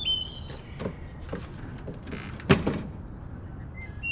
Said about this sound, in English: The screen door swings open and a waft of stale fast food bags and unwashed laundry hits me right in the nose.